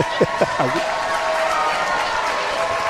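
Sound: crowd applauding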